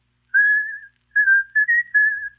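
A man whistles a short melodic tune from an old love song, a few sustained notes rising and falling in a gentle phrase, clear with no talking.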